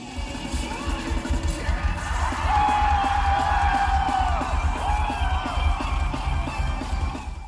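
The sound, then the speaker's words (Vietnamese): At the Pentaport Rock Festival, a big crowd cheers, whoops and claps continuously along with the rock singer over a pounding rock beat, with loud sustained shouting swelling in the middle and steady thumping bass underneath throughout. “Khán giả và ca sĩ nhạc rock hòa làm một, cùng reo hò, vỗ tay tán thưởng, cùng nhảy bật lên, nhảy lắc lư theo nhạc khiến con tim mỗi người nóng lên theo từng giây từng phút.”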